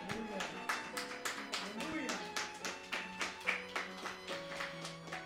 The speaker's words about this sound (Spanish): ¿Por qué no le damos un aplauso al rey?